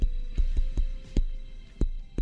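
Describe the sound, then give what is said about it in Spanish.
A series of about seven dull knocks on a door, tapped out in Morse code in an uneven pattern of short and longer gaps, fairly loud over a low steady hum, with no voices. “Sí, bueno, este, se lo voy a mandar en clave morsa, porque es el día del código morse.”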